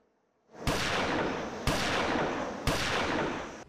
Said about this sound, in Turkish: Luna Park'ta büyük korku. Silahlar patladı.